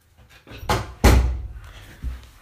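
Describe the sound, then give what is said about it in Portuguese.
A door is opened to let a female dog outside, with a couple of wooden thunks and a sharp bang, followed by a softer knock, with faint rustling in between and no talking. “vou-me levantar para abrir a porta à minha cadela só para ela ir, eh, sei lá, lamber-se lá fora.”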